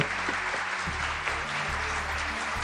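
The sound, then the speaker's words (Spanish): A crowd claps steadily and loudly, a dense continuous wash of many hands applauding, with no one speaking over it, welcoming a guest from an Argentine progressive rock band on the program La Galera del Rock in Uruguay. “un fuerte aplauso”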